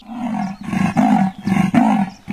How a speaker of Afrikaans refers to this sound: Die luiperd skrik wakker en grom hard.